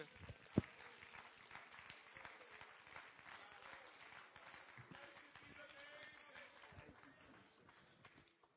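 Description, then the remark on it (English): A church audience claps their hands unto the Lord during a worship service, a sustained burst of applause, a dense patter of many hands at moderate loudness, with a brief sharp knock near the start. “And we clapped our hands unto the Lord.”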